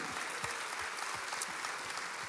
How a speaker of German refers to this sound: Und alleine das ist ein Applaus wert unserem Gott im Himmel.